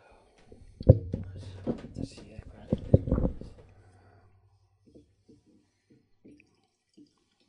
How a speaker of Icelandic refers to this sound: Já, fyllum bara á kaffið og, og svo skulum við halda áfram með.